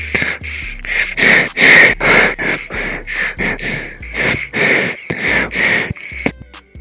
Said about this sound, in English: that was me breathing throughout the podcast.